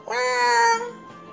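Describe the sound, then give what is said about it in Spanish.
A single drawn-out cat meow, loud, with a bright, strongly tonal cry that holds steady before tapering off into a quieter trailing tone. “Y abre y sale un gato.”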